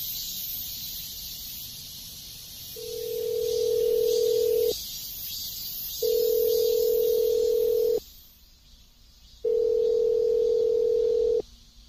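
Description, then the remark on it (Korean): A steady telephone ringback tone pulses three times, each buzz lasting about two seconds with short silent gaps between, heard clearly over a faint hiss before the call connects, on a call made to ask about a part-time job. “아르바이트 구하신다고 해서 전화 드렸는데.”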